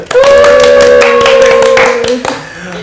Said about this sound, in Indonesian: Sebelum kita mulai kita tepuk tangan dulu ya biar cair.